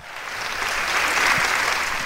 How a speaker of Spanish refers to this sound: Un aplauso. Wow.